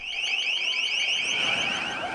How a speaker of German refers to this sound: In dem Moment, in dem die Schallkanone eingeschalten wird, da gehen die Hände der Demonstrierenden reflexartig zu den Ohren und sie rennen weg.